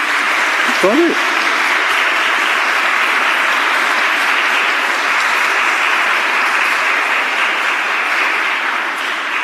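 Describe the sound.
Steady, dense applause from a crowd, a continuous wash of many hands clapping at an even level for several seconds, with a brief voice heard near the start.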